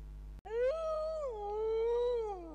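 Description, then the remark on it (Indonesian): A wild dog, heard from a distance at night in a cold wind, lets out a single long, drawn-out howl, rising at first and then sliding slowly downward as it holds, over a steady low hum, with a sharp click just before it starts. “Gak lama kemudian, dari kejauhan Om mendengar suara lolongan anjing hutan melolong panjang lolongan yang banyak artinya.”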